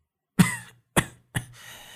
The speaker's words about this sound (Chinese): 韩半仙轻轻咳嗽了几声，吃力的抓起他的手